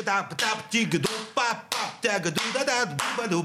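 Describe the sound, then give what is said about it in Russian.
Sharp hand claps land at a steady beat while a voice sings a wordless melody that comes to mind, the claps cutting crisply through the continuous singing, demonstrating how a Russian audience claps along to music. “Это наши будут хлопать.”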